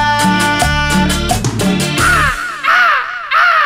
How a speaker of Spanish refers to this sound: Loro, vuelve a tu jaula.